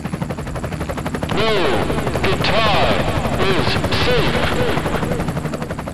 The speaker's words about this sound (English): Let's drop the copter on …'s front lawn.